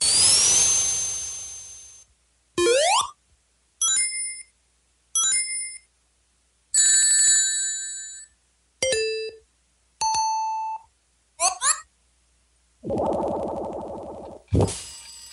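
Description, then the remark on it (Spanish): A string of short electronic sound effects from Sega's video game character Sonic the Hedgehog plays alone: bright chiming beeps, rising and falling synth sweeps, a warbling trill and a buzzy low burst, separated by brief silences. “y yo sé, yo sé que también lo van a reconocer, al protagonista por sus sonidos de juego, ¿no?”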